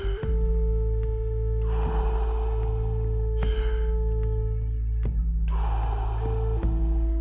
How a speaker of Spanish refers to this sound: Inhala, exhala. Hacia adentro y hacia afuera. Simplemente sigue con el flow de la respiración.